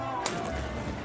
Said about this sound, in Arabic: وهذا صوت مدفع الفطور